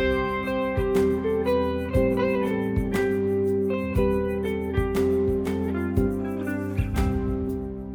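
A steady instrumental music passage with sustained harmonic tones and regular percussive accents roughly every second, played at moderate loudness with no voices.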